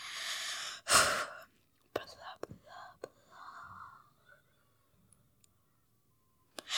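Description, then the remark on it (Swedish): Eerie, breathy ghost-like whispering at home in the countryside: a sharp hissing burst, then softer broken whispers, a few clicks and a faint drawn-out moan before fading to near silence. “Hörde ni? Det lät som ett, ett spöke.”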